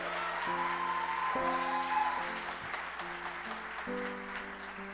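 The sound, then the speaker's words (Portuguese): An audience at a worship service applauds God's name in a steady, dense wash of clapping, with sustained keyboard chords ringing underneath and shifting every second or so. No one speaks. “Nós te pedimos, vem sobre nós, e antecipadamente aplaudimos o teu nome, por tudo que o Senhor fará em nosso meio.”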